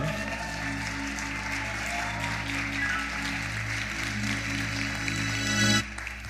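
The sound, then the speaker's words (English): Steady applause from an audience for several seconds, welcoming two people invited up to speak, a dense wash of clapping over a low hum, cutting off abruptly near the end. “can we give it up for these two?”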